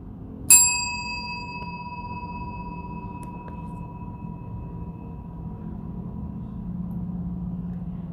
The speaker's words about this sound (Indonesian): Ambillah satu atau dua, mungkin tiga emosi negatif yang berada di dalamnya, dan denting berikut ini akan mengikis perlahan-lahan seiring dengan suara dengung yang terdengar.